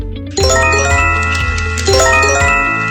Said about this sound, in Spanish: Alerta de evacuación. Primero, tomarlo con seriedad, mantener la calma y seguir las indicaciones que ya sabemos.